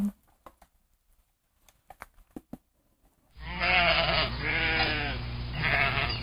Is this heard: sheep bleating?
yes